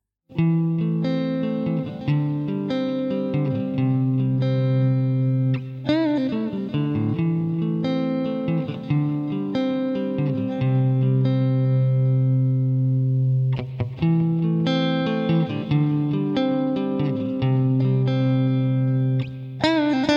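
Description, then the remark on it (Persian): An electric guitar plays a clean, undistorted tone, strumming and picking sustained chords in a steady, continuous phrase for about twenty seconds, fairly loud with no voices. “صدای کلین گیتار الکتریک اینطوریه.”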